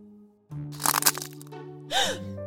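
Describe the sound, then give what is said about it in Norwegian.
A loud cracking snap, a quick cluster of sharp splintering crackles followed by a second brighter burst with a whooshing swoop, all over a low steady hum. No one speaks. “Jo, det var lyden av lesekoden som knakk.”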